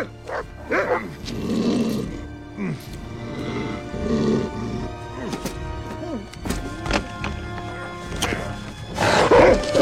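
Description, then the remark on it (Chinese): A hound in a courtyard barks and growls in repeated rough, harmonic bursts throughout, loud and agitated, as it chases a man running flat out, with scuffling noise between barks and a louder burst of activity near the end. “然而他的钩枪正好挂到了院子里面的猎犬，被追着一路狂奔。”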